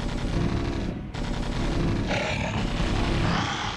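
Dense, continuous gunfire and heavy cannon blasts from Marines' rifles and guns firing from bunkers at approaching creatures roar together in a loud, unbroken barrage, with a brief dip before the shooting surges back even harder.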